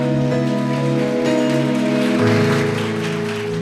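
An audience on a Sunday night claps in a dense, steady wash of applause to worship, holding for several seconds, with sustained keyboard chords ringing underneath. No one speaks.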